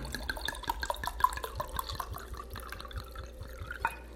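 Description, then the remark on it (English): Wine glugs and splashes steadily into a glass, a continuous trickling pour with small bubbling drips, lasting several seconds with no talking. “So let's pour.”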